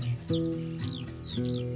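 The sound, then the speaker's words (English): A bird in the sky calls repeatedly in short, high, downward-sweeping cries, each a fraction of a second long, over a steady low droning hum of musical tones. “In the sky, a bird was heard to cry.”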